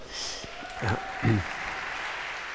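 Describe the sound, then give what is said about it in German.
A brief patter of ironic audience applause in a church, a steady crowd of hands clapping at moderate volume during a talk by three men on feminism, with a couple of short voices breaking in over it. “Das, das, kann nur ein ironisches Klatschen sein, wenn hier drei Männer sitzen und behaupten, sie bringen den Feminismus genau, nach vorne.”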